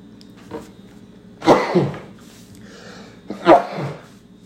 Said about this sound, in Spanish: Tengo un poco de gripa. Ahí cometí ese estornudo.